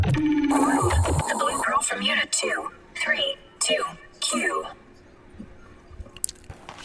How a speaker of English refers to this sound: The static is heard in the air as a fembot makes announcements over the speaker.